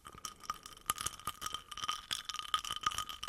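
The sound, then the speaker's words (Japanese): Ice cubes clink and rattle against a glass in a steady run of small, bright taps, fairly quiet, with no voices. “ああうん氷の音だと割とまだわかるかな。”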